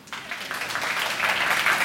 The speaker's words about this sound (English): Ladies, if you like that, clap, please.